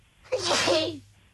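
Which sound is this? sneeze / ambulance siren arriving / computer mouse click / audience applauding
sneeze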